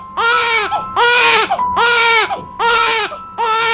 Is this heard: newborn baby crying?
yes